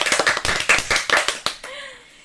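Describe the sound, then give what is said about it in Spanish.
A short burst of lively applause welcomes a guest journalist of Radio Hispanohablante, a dense patter of many hands clapping at a quick, uneven rhythm, fading out after about a second and a half. “Aplausos, por favor.”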